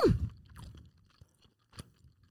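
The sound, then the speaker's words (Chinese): Soft, wet chewing on tender beef rib strips braised in a borscht with butter-fried onions and vegetables, starting with a louder bite and then a few quiet, irregular mouth sounds with slight crunchy clicks. “满满的精华就在这一锅，我要来吃牛肉了啊！”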